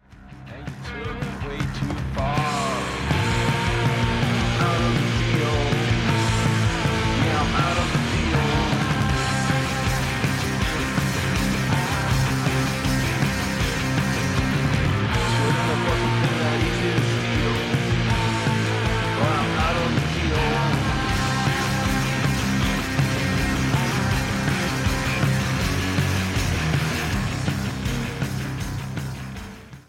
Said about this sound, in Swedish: jag tycker vi tar och lyssnar lite grann på en av låtarna från EPn